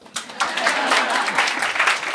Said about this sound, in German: Oh, wollt ihr klatschen? Ja.